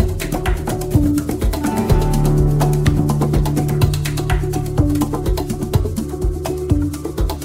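A Latin pop song plays steadily at full volume, with crisp, regular percussion hits over warm sustained tones and a bass line, no talking over it.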